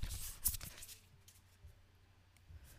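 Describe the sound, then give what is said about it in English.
Soft papery riffling of a tarot deck being shuffled before a card is chosen, a quick cluster of crisp flicks in the first second, then only faint scattered ticks against near-silence. Quiet, with no voices. “I just have to some ASMR like gonna pick up the shuffling noises.”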